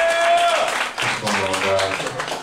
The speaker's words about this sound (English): Clap it up for these two battlers.